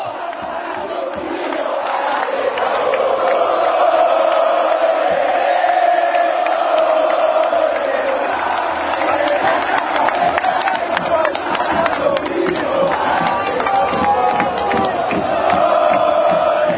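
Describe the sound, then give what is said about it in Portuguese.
A large crowd of Club Atlanta football fans chants in unison their discriminatory song aimed at rival club Chacarita, a dense, loud wall of voices sustaining a sung melody throughout, with occasional shouts and whistles rising above the chorus. “Inclusive a gente vai ouvir a versão que a torcida do Atlanta canta pro Chacari.”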